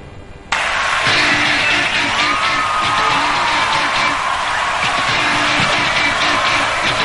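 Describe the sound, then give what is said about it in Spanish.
A huge stadium crowd at a national rock icon's concert in Vélez, in the rain, roars and cheers in a loud, continuous wash after a brief quieter moment, with whistles and shouts rising from the mass of voices and a faint musical tone underneath. “un ícono del rock nacional y cuando volvía de la rehabilitación y la rompía toda en Vélez, bajo el agua, con un montón de artistas y un estadio”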